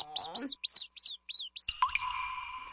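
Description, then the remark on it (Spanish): Laboratory mice squeak in a quick run of about six short, shrill, high-pitched chirps, fairly loud, followed by a steady whistling tone that fades out. “Ratones de laboratorio.”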